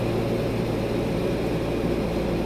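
A steady, low airplane cabin engine drone on a flight to Paris fills the whole stretch, an unbroken rumbling roar with a faint high whine riding on top and no voices.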